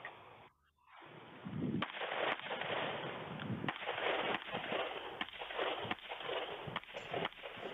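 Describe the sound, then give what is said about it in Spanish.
A rapid string of sharp gunshots, roughly eight, fired in a shooting drill at two far and two near target cards, cracks out at a brisk, slightly uneven pace over a steady wash of background noise, with no one talking. “Tuviste una diferencia entre el split entre los tiros.”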